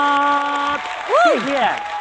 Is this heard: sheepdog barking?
no